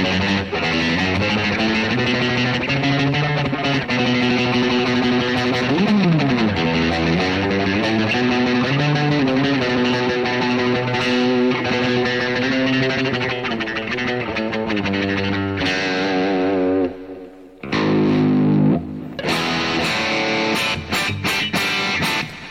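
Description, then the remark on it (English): Heavily distorted electric guitar without a locking nut rings out loudly, with a tremolo dive bomb that sends the pitch swooping down and back up, then a brief cutout before more sustained notes. “Let's call a dive bomb too.”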